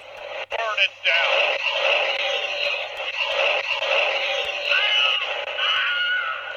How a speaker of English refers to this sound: I didn't know it had the Wilhelm scream. that's awesome.